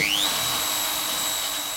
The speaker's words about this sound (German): Mit einem Pürierstab werden die Muscheln zerkleinert und anschließend aufwendig gereinigt.